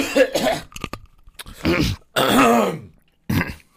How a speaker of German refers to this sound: Also, ja, es fängt jetzt ein bisschen eklig an, aber so klingt der Alltag hier bei uns im Radio. Wir testen. Corona-Spucktest.